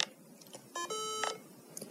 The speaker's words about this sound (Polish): właśnie e, urządzenie nam się włączyło. E, odezwał się sygnał dźwiękowy, no i w tym momencie czekamy na załadowanie systemu.